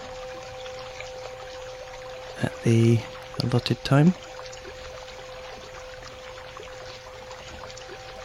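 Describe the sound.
Steady babbling brook water runs continuously at a soft, even level with wind chimes, and a person briefly speaks over it partway through.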